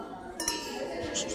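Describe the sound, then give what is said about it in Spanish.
Glasses clink together in a quick toast, a couple of bright, ringing taps, with a soft murmur of voices underneath. “Ahora sí, salud también.”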